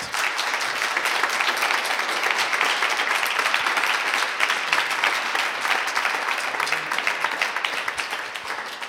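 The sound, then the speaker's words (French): An audience at a salon (trade fair) panel applauds the speakers steadily for several seconds, a dense, even wash of many hands clapping at a fairly loud level with no voices standing out. “Je pense qu'on peut applaudir nos intervenants, intervenantes.”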